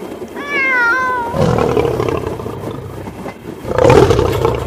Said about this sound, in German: Der Tiger.